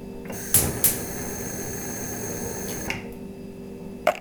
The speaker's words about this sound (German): Im Augenblick höre ich besonders den Kühlschrank.